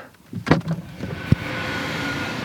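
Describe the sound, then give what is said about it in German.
A regional train, the Regionalbahn 67 running from Frankfurt towards Heidelberg, pulling in and stopping, heard as a fairly quiet, steady mechanical rumble and hiss with a couple of short clunks early on. “Guck, da hält jetzt noch so ein grimmiger Zug an.”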